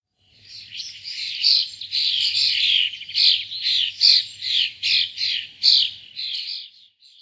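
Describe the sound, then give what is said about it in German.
A person imitates a starling's song with a continuous stream of bright chattering, whistled and squeaky notes in quick rhythmic bursts for about seven seconds, with no talking. “Jetzt mache ich dir den Star.”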